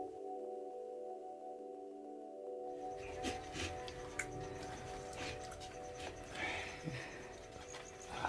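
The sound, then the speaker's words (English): An atmospheric, environmental audio feedback composition: steady, layered feedback drones hum at several pitches; after a few seconds a busy wash of environmental noise joins in, scattered with soft clicks and clopping knocks beneath the sustained tones. “It's an atmospheric, environmental kind of sound that you can enjoy drifting in and out of.”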